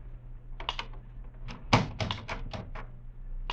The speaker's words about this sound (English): It was long after midnight when my office door slowly opened.